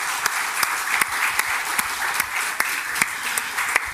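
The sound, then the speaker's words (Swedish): A crowd applauds steadily for Swedish Minister for Justice Beatrice Ask, dense clapping at moderate volume, with a few sharper individual claps standing out from the continuous wash of hands. “Jag tycker vi ger justitieministern en applåd.”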